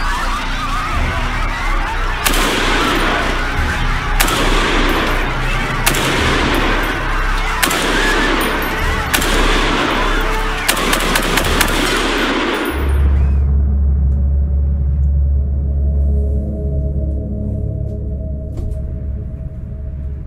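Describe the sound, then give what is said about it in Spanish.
Bursts of rapid gunfire, fired into a crowd after a grenade explosion, crack repeatedly for about twelve seconds, loud, in sharp clustered volleys, then cut off abruptly into a low rumbling drone. “Luego de la explosión vendrían las balas.”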